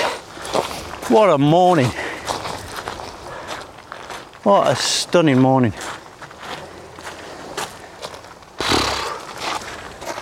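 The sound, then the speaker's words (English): Footsteps crackle and crunch underfoot at a steady walking pace as someone heads up to the beach, while a person speaks over them. “Last time you'll hear the crackle underfoot.”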